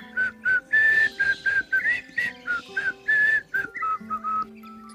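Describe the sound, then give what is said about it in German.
A person whistles a quick, bouncy tune of short repeated notes, fairly loud, with a steady low tone sustained underneath the melody. “Ich glaube, er wird mit Pfeifen aktiviert.”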